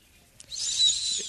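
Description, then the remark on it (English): A thin, high-pitched whistle from breath through the nose, holding steady for about a second after a brief breathy onset, with no talking. “Schnoz whistle.”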